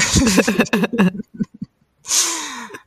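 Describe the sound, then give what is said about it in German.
During a group laughter exercise in a circle, a rhythmic burst of laughter fades into a pause, followed by one deep, airy breath drawn in and let out, fairly loud. “und genau, und dann wird dann wieder eingeatmet, tief eingeatmet und dann wird das die zweite Stufe, dann lachen wir bisschen lauter”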